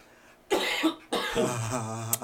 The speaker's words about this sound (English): Okay, now, if we are coughing though, I am going to try to edit that out